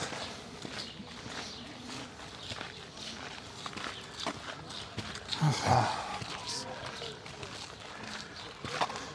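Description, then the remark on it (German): Steady footsteps crunch along outdoors, a continuous walking rhythm with overlapping steps of two people walking close together, hand in hand, arm in arm, over a soft background hiss. “wir laufen e, eng zusammen, Händchen haltend, Arm in Arm”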